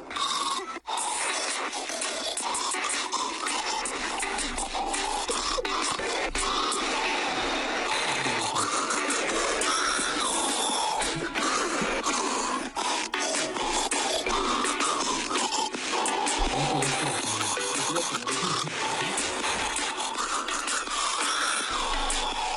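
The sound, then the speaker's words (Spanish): A husband's snoring, recorded over four years, blended into a song, making a dense, steadily loud musical mix with rasping, snorting breaths woven through the beat for over twenty seconds, with no talking. “Eh, yo soy un gordo que ronca y esto me resulta ofensivo.”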